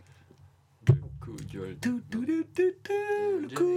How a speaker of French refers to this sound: Un jingle